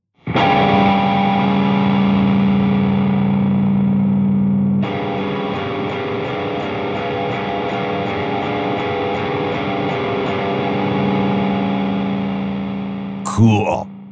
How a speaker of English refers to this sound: To flatten that, move the third finger to the next fret down so that D plays as a D flat. That introduces dissonance. For some extra oomph, let's hear that on an electric guitar with some distortion. And boom.